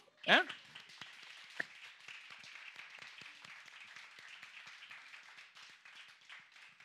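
An audience applauds: many hands clap together in a dense, steady crackle that lasts about seven seconds, opening with a brief loud burst.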